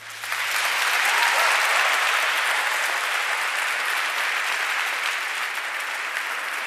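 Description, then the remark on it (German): A large live audience in the Paulinum in Leipzig bursts into sustained, thunderous applause, a dense wash of clapping that swells quickly and holds steady for several seconds, with no talking. “Und das Paulinum wollen wir jetzt einmal hören mit einem donnernden Applaus.”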